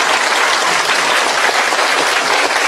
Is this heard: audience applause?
yes